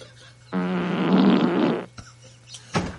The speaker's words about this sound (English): It's like, Alexa, play a wet fart. Okay, here's big fart. Here comes a wet fart.